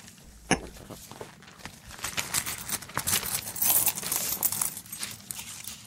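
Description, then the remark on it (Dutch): A euro coin is flipped to decide who goes first, with a single sharp click, followed by several seconds of soft rustling and handling noise as it is caught and covered. No one speaks. “Eh, Even een muntje gooien.”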